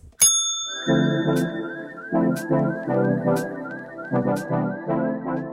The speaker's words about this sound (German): Und das Wichtigste, die Klingel, wenn das Essen fertig ist.